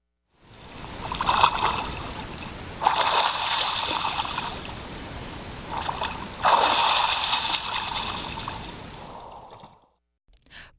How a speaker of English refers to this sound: This is titled Bathe with the Bears, uh, a rare glimpse caught by hidden cameras of grizzlies and black bears cooling off in a remote Yellowstone pool.